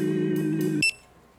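A fast food restaurant's burger station on the line beeping: a loud, steady electronic tone holds for under a second, then a short, bright beep cuts in and it falls quiet.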